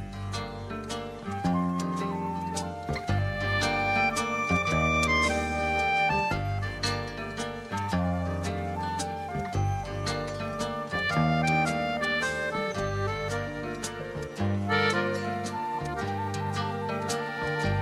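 song intro playing

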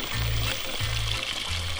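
water sounds

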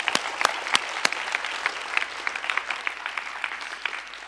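audience applause

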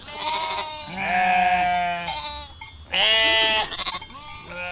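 sheep bleating

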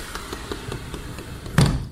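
japanese-style sliding door opening

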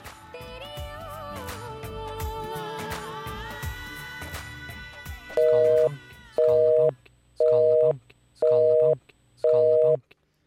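radio station jingle

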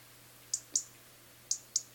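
european robin ticking call

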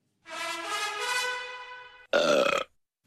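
loud burp

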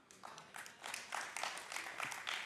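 a few audience claps

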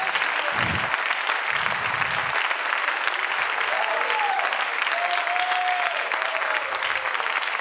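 audience hand clapping

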